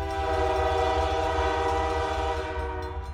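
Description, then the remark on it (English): A train, with a small hook that snatched a mail bag from a pole beside the railroad tracks, rumbles past with its horn blaring in a long, steady chord over the low, heavy rolling noise. The horn stays loud throughout and trails off slightly at the end. “You know, the mail would be in a bag hanging on a pole next to the the railroad tracks, and the train would come by, and had this little hook and it would snatch that mail and take it off to wherever, probably Greensboro.”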